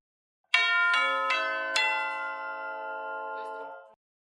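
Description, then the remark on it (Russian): Tubular orchestral bells struck three times in quick succession and played with the pedal, the tones ringing on and overlapping with a long sustained resonance before being cut off after a few seconds. “Но чаще всего они стандартно звучат, все палки для колоколов. Как звучит с педалью?”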